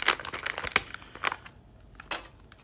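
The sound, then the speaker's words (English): Quiet paper crinkling while a joint is rolled: irregular crisp rustles and small crackles in uneven bursts, a few sharper crinkles standing out, with no talking. “I know I said I was gonna stop rolling up during the pod, but should be stressful, bruh.”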